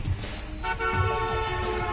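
A car horn honks in one long, steady, buzzy blast that starts partway through and holds to the end, over a low rumbling engine-like background.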